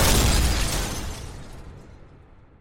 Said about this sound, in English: What happened here? Explosion. Oh, yeah. That makes sense.